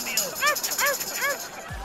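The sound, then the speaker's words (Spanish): Three high-pitched yips from a small dog in Mexico City, evenly spaced, each a short rising-and-falling bark over a faint background hiss. “Así que digo, cuando vi yo este perrito, yo me di cuenta que el cambio no está en mis manos.”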